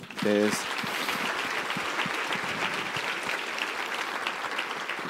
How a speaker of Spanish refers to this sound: Desen un aplauso.